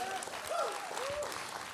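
Audience applause for a man who brought a table up on stage: a steady, dense wash of many hands clapping at even loudness, with a couple of short, bending whoops or whistles rising above it.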